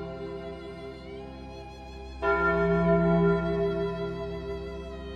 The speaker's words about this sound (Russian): Сегодня песнь стали и золота была особенно мрачной, ведь колокол звонил по королю, двум его сыновьям и закату династии Лунстоунов